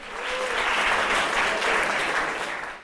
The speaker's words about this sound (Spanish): Denle un aplauso, por favor.